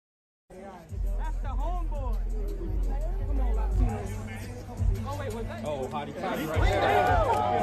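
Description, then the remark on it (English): Football crowd noise: a steady, loud hubbub of many overlapping voices over a deep rumble, swelling louder toward the end with scattered shouts rising out of the din. “I don't know if there's music, but the crowd makes this one.”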